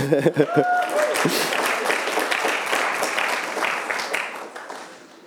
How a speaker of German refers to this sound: Dankeschön. Ein Applaus für meine Frau.